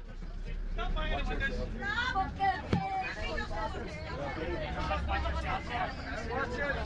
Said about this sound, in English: The Linfield fans bus, 15 minutes after the full-time whistle.